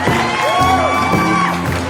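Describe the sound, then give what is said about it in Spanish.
An audience applauds and cheers loudly after a live song performance on Barroco Radio, for the full two seconds, with whoops and shouted voices sliding up and down over a steady, dense wash of crowd noise. “Aplausos, aplausos para totalmente en vivo en Barroco Radio.”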